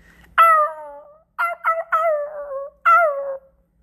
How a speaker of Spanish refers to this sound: pero ese perro, ¿por qué chilla?